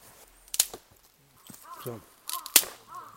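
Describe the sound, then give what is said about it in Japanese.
Two sharp, dry snaps of a dry, finger-thick stick of fallen wood breaking, about two seconds apart. The stick is being tested as fire-building wood, and a man speaks briefly between the snaps. “今のポキっていう音がする木です”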